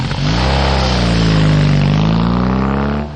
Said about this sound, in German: Die Motorradfahrerin lässt den Motor gezielt aufheulen, hat vielleicht auch den Auspuff aufgebohrt. Für sie ist das Geräusch Symbol für Kraft und Leistung.